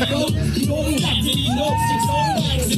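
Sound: crowd cheering at rally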